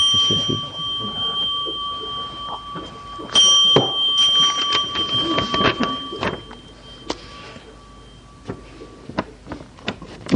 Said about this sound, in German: Du brauchst nur einmal klingeln.